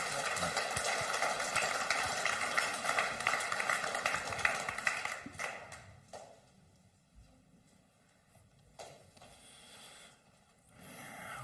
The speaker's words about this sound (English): All this applause and cheering is for you, wherever you're found today.